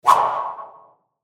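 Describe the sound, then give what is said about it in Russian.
A single whoosh of a thrown white baseball cutting through the air, sharp at the start and trailing off over nearly a second, clear with no voices. “Летит белый мяч.”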